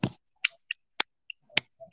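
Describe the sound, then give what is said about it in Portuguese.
A handful of sharp, scattered hand claps, fairly loud, landing at an uneven rhythm rather than a full round of applause, with no talking. “Não, mano, se, se, uma pessoa bom, tá chegou até aqui, por favor, vamos dar salva de palmas para essa pessoa.”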